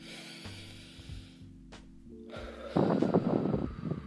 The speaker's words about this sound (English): Uh, she basically talked about taking a moment to relax, breathe. Everyone says breathing. Breathing is number one. Let's let's breathe real quick.